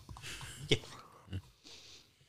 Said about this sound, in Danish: der skovler den ene skefuld budding ind efter den anden.